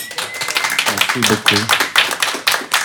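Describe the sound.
An audience bursts into sustained applause, many hands clapping in a dense, steady patter for about three seconds, with a brief voice or cheer rising through the middle.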